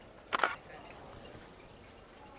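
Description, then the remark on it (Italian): A single crisp camera shutter click with a brief mechanical double snap as a photo is taken with flash bounced off a reflective wall, fairly loud, followed by quiet room tone and a faint click at the very end. “allora anche qua adesso cercherò di compensare un attimo il flash mi assicuro che appunto la direzione sia giusta e scatto la foto”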